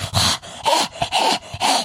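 animal, dog breathing heavily

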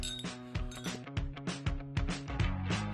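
household object, glasses clinking

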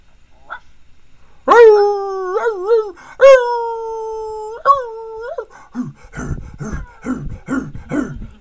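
animal, dogs barking and howling

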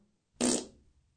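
human body sound, fart

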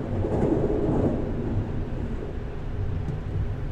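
vehicle, train passing by

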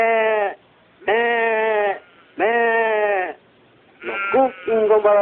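animal, sheep bleating

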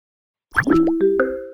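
signal or alarm, computer notification chime

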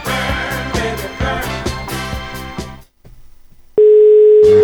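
signal or alarm, telephone ringing tone

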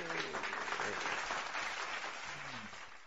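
sound effect, clapping applause

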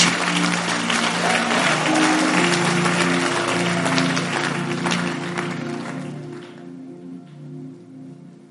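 crowd, audience clapping hands

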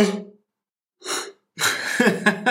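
human body sound, yawn

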